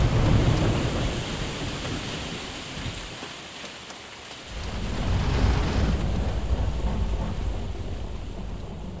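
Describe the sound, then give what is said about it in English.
A fierce storm of hail and rain roars steadily, with deep rumbling thunder that eases briefly midway before swelling back up, loud, with no voices. “Dewanu could feel himself tumbling through the hail and rain as he clung to his kite and the tiny frozen bird.”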